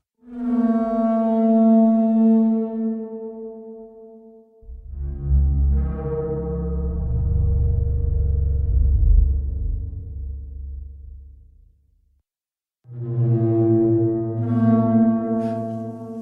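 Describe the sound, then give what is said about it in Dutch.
Three long, deep honking calls with a brassy, trombone-like resonance, the middle one lower and rumbling, separated by short pauses and heard alone without any talking. Reconstructed Parasaurolophus call, based on skull analysis showing air channels that run all the way to the end and back to the nose, like a trombone. “En van het einde weer terug naar voren, naar de neus. Zoals een trombone.”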